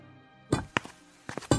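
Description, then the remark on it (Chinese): Two men with iron hammers smash a Buddha statue laid on a felt rug, starting with its lotus base: four or five loud, sharp impacts at an uneven rhythm after a short quiet stretch, each a dull crack with a brief rattle of debris. “砰砰砰的声音响起之时，霍威楼从右厢步出，便见那尊佛像被抬出正堂，放倒在一块毡毯之上。”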